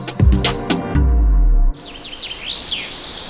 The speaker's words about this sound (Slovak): Toto je zvuk najväčšieho filtra CO2 na Slovensku. Zachytí tony uhlíka. Áno, je to les.